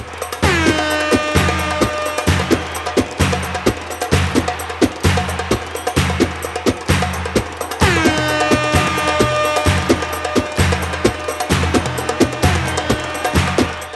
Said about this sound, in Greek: βάλτε την κόρνα πιο δυνατά, για σένα είναι.